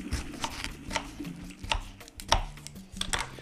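A knife slices through cucumber on a cutting board, cutting twelve cucumber slices, crisp chops repeating in a fairly steady rhythm, about a dozen cuts with no one talking.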